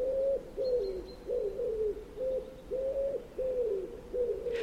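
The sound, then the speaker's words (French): A wood pigeon coos in a steady series of soft, low, hooting phrases, repeated rhythmically, with faint background ambience and no one speaking. “Prenez un oiseau très connu des grandes villes européennes, le pigeon ramier.”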